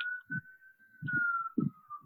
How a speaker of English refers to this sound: I apologize for the siren in the background. No, you're fine. I thought somebody was whistling there for a second.